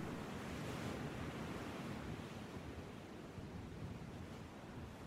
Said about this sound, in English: It's always worth keeping a watch over the waves below, as dolphins, whales, and basking sharks are sometimes seen around the coast.